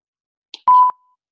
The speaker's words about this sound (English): Oops, that was a sensor beep.